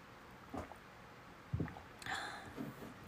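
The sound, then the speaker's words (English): Someone drinks water: a few soft, quiet gulps and swallows with small wet mouth sounds and breaths between them, spaced unevenly over a few seconds, with no talking. “Excuse me, I'm drinking some water.”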